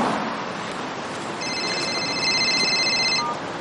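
mobile phone ringing

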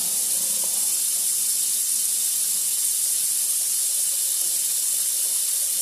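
water running

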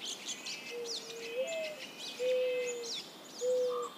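mourning dove cooing

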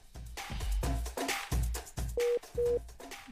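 telephone line tone

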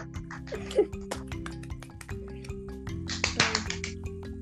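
small applause

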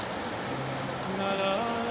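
rain

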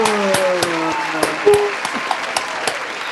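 applause

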